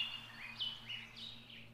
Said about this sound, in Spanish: Las flores caían de los árboles, el sol brillaba de nuevo, los niños brincaban de alegría y se abrazaban, mientras el canto de los pájaros armonizaba la bienvenida al nuevo mundo.